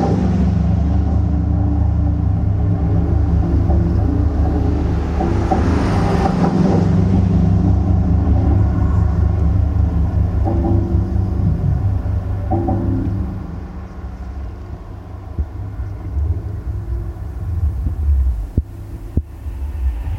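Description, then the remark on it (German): Bridge railing vibrations picked up by a contact microphone: a deep, steady humming drone that swells loudly as if traffic passes, eases off, then ends with a few sharp knocks. “auch dieses Teil, was Erdschwingungen oder Brückenträgerschwingungen oder in diesem Fall die Schwingungen vom Geländer der Brücke mit aufnehmen kann.”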